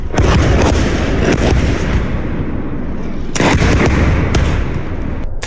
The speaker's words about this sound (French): Armand Soldin avait envoyé des images terrifiantes d'une explosion de roquettes qui avait frappé l'est de l'Ukraine